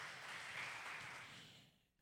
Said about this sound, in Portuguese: Eu quero uma salva de palmas, Senhor.